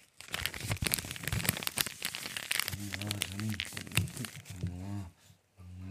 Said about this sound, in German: Ihr müsst irgendwas ins Mikrofon. Ja, ist so. Knistern. Mhm. Oder knistern. Ich knister das gerade.